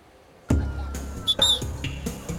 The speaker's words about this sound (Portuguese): O apito é de alerta para o perigo. Cuidado com o afogamento.